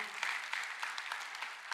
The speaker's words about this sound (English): That's worth clapping for once again, actually.